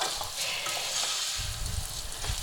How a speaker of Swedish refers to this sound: Ner, så får det steka på lite.